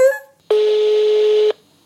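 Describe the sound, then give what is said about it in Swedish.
A telephone ringback tone while calling someone: one steady, buzzy ring about a second long, fairly loud, preceded by a short faint beep and followed by quiet. “ja, men vi ringer en här. Nu ska vi se om hon svarar.”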